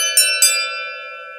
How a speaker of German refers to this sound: Ein Mann in Zivil ging voraus und klingelte.